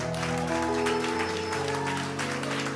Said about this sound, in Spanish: Este aplauso es para todas las personas que acaban de tomar esta decisión importante.